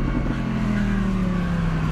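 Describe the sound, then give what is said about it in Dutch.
The V10 engine of a rear-wheel-drive Audi R8 sports car roars loudly, its deep, steady growl rising slightly in pitch as it accelerates for two seconds, with no voices over it. “Deze motor klinkt zo verschrikkelijk goed echt feest.”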